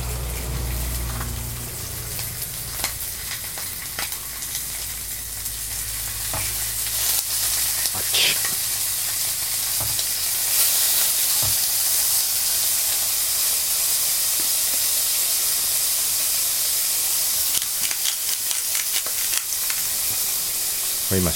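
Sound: pork belly sizzling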